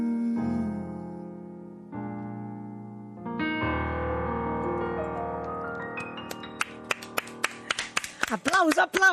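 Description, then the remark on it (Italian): Sustained sung notes and music fill most of the moment, then scattered clapping breaks out near the end, growing quicker and louder as applause over the fading voice. “applauso, applauso.”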